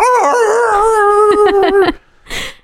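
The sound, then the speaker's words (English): A person imitates a howling dog with one loud, drawn-out, wavering howl lasting about two seconds, then lets out a short breathy burst after a brief pause. “Oh, that's that's how how dogs in Italy express happiness by going.”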